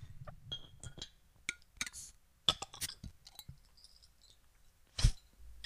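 A 16-ounce bottle of dark real ale is handled and opened: a run of light glassy clinks and clicks, then a sharp hissing burst near the end, with no talking.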